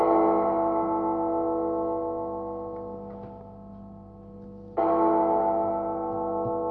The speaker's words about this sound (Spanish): años que suenan las campanas del infierno